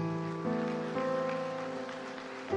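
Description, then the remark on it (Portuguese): A church audience applauds God at the preacher's call, a steady, dense patter of clapping that lasts throughout, over sustained keyboard chords that shift a few times, with no voices heard. “Aplaude a Deus por isso”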